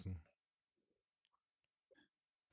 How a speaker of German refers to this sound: kannst doch nicht tippen, wenn ich anmoderiere.